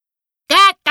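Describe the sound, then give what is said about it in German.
A person imitates a duck with two nasal quacks, a longer one followed after a short pause by a brief second call, fairly loud against silence. “Kack, ruft er begeistert.”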